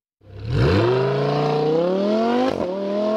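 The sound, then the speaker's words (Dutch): The V10 engine of a first-generation (non-Evo) Lamborghini Huracán roars to life and revs hard, its pitch climbing steadily with a brief gear-shift break near the end, loud with no voices. “Je hebt natuurlijk die Huracan met, met de V10.”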